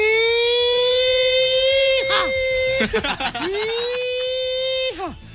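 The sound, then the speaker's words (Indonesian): A voice imitates a headquarters crime alarm siren with a loud, sustained high wailing tone, broken by several quick swooping dips before it resumes and trails off near the end. “Tiba-tiba alarm markas berbunyi.”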